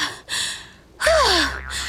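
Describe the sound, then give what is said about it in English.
Heavy panting: a run of loud, breathy gasps in quick succession, one carrying a strained voiced edge, like someone catching their breath after hard effort. “Panting, Foxy collapsed on top of the coral.”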